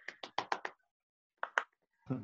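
Hand clapping: a quick run of five sharp claps, a short pause, then two more claps, with a brief muffled sound at the very end.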